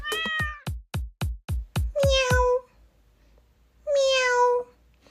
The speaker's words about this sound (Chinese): 喵！哦，这突如其来的猫叫声把所有的小老鼠吓得四处窜逃。